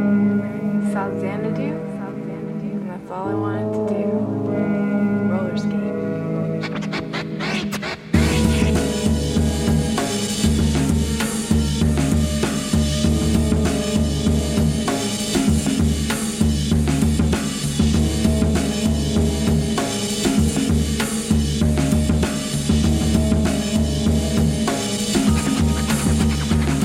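An instrumental hip-hop track opens with a soft, sparse melodic intro, then a full beat drops in after about eight seconds and a dense, steady groove plays loudly to the end, with no voices.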